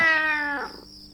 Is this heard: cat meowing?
yes